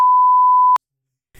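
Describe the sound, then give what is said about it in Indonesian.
A loud, steady censor bleep holds one high pitch for under a second, then cuts off sharply into silence before a voice briefly starts up at the very end. “Lu harus sensor gak sih ini suara dia?”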